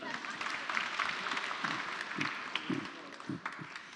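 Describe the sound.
An audience gives a woman warm applause for about four seconds, a dense, even wash of many hands clapping at a consistent loudness, with a few faint voices murmuring underneath.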